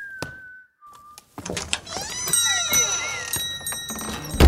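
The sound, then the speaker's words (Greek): A man whistles a short tune of two held notes as he leaves a place after paying and taking his book, then a busier burst of sliding tones and clatter. “Είπε, πλήρωσε, πήρε το βιβλίο του και βγήκε από το άλφα σφυρίζοντας.”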